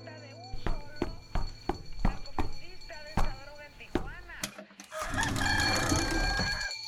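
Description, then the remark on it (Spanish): A neighbour's rooster crows loudly over a steady series of sharp knocking clicks, then a burst of broad, rushing noise takes over near the end, with voices heard along the way. “¡Ay, un gallo!”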